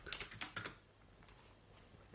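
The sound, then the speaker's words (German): A short burst of typing on a computer keyboard: several quick, crisp key clicks, then the tapping stops and only a faint hush remains. “Ach toll, voll ins falsche Feld getippt.”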